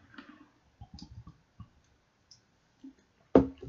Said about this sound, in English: in any case you can hear me drinking water